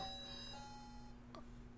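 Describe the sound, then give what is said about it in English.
An alarm clock going off rings with a bright, bell-like electronic chime whose tones ring out and slowly fade, followed by a brief click near the end. Quiet, with no talking. “My alarm clock going off.”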